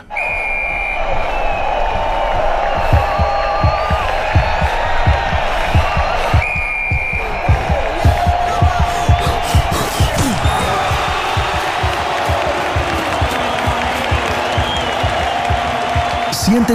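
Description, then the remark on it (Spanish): A game in progress in a short audio piece from an LG Soundbar advertisement with Meridian and Dolby Atmos: a steady crowd roar, repeated ball bounces thudding in quick rhythm, sneaker squeaks, and short whistle blasts cutting through, with voices murmuring underneath. “inmerso en el partido con Meridian y Dolby Atmos de tu barra de sonido LG Soundbar.”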